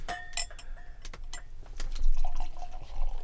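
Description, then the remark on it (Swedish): Beer poured from a can, with a steady liquid splash, light fizzing making quite a lot of bubbles, and a few bright glassy clinks near the start. It is moderately loud, with no talking. “Ganska mycket bubblor.”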